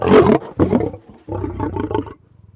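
A lion roars loudly, two forceful bursts followed by a longer, deeper growling roar that trails off into a low rumble. No voices accompany it.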